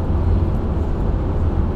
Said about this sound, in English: 300 k's away from Adelaide, recording in the car. So if there's any, um, you hear any of the road noise, makes it hard to hear. I do apologise for that.